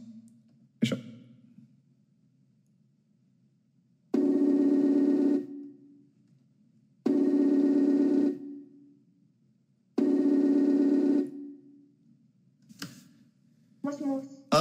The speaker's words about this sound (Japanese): 電話をつないでみたいと思います。